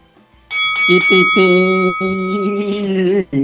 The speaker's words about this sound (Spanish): A ver, ahora suena la campana.